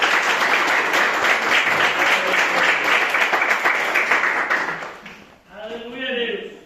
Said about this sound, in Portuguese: E as palmas que adorem a Senhor Jesus.